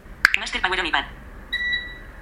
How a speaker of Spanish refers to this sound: Entonces, si yo le doy, veréis, escucharéis el pitido del aire acondicionado que se enciende.